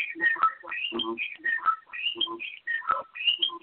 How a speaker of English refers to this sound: Yo, that echo is crazy. That got ridiculous. yeah, I thought I would try to improve it. It's, it's worse. Hold on. I don't know what that is. What that is. But uh, um, it's definitely some type of feedback.